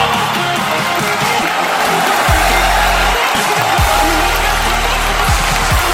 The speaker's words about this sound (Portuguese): Você vai receber agora as palavras sábias do grande, do maravilhoso, do espetacular. Palmas, eu quero palmas para o ponte de fracasso.